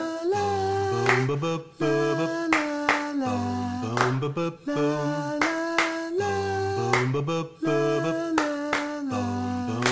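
Sharp hand claps, demonstrated as a clap for kids to add, repeat in a steady rhythm over a looping, tuneful musical backing with a low pulsing beat. The claps stand out clearly, and no one speaks.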